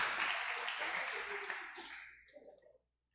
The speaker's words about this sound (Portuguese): Uma salva de palmas